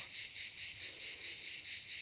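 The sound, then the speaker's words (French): Cicadas on Porquerolles, in the woods by the sea, sing in a continuous high, buzzing drone that swells and fades in a steady pulsing rhythm, moderately quiet, with no voices present. “qu'il s'agisse de cigales”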